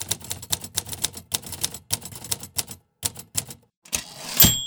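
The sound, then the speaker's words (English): A manual typewriter clacks away in quick, uneven bursts of sharp keystrokes with brief pauses, closing with a louder rattling carriage return and a faint ringing ding. No one speaks. “my typewriter fit well on the table next to a pile of books and papers and a big ashtray.”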